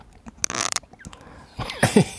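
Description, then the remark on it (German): A headset squeaks and creaks as it is handled: irregular plastic crackles and rubbing, then a louder cluster of short, squeaky chirps near the end. No one speaks. “Es sind nicht die Knochen, es ist das Headset.”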